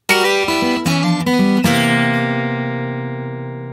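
A brief snippet of a J-pop song: bright, full chords change a few times in quick succession, then one sustained chord rings out and slowly fades. No one speaks over it.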